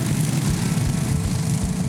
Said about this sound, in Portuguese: Enquanto na Inglaterra, o desafio foi outro. Os moradores tiveram que acelerar fundo para ver qual cortador de grama era o mais rápido.